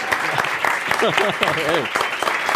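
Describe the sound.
A crowd applauds with dense, steady clapping throughout, while a voice whoops and calls out over the applause partway through.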